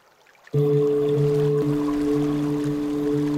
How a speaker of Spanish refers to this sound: que son todas aguas, agua, agua, agua, cascadas de agua